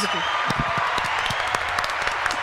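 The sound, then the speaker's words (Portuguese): A steady round of applause from a group, many hands clapping in a dense, continuous patter at an even loudness, with faint voices mixed in underneath. “Vamos botar palmas.”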